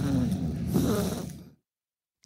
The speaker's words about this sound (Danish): Det var en hasselmus, der ligger og ja, snorker. Det altså- ja, ja. Øh, det ville jo være meget svært med øh, at, at få den gode lyd af en øh, hasselmus, der snorker, hvis ikke det var lavet i et studie.